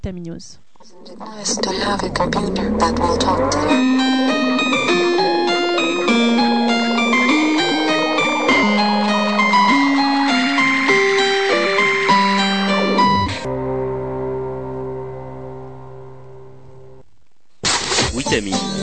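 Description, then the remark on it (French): A pop song plays during a music break at a steady, fairly loud level, with a clear melody moving through sustained notes. It thins to a fading tail near the end before a sudden new burst of sound cuts in. “Alors on va faire une petite pause musicale. On va s'écouter … avec ….”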